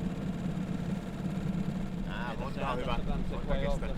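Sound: boat engine idling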